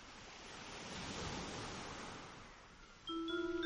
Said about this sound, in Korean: 네, 파도 소리는 약간 올렸어요, 일부러.